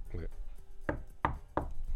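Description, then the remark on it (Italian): Three firm knocks on wood in an even rhythm, like rapping on a door, preceded by a brief murmur of voice. “Pioli chiede la svolta, nessuno soddisfatto e manca un difensore, quindi bussa, Pioli bussa, così bussa”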